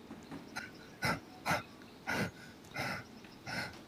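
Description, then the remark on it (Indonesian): A person imitates a dog panting after running, with five quick, breathy huffs in a steady rhythm, fairly loud, no words spoken. “contohnya kayak anjing lagi lari terus dia biasanya kan kalau pas lagi berhenti kayak ngos-ngosan gitu loh”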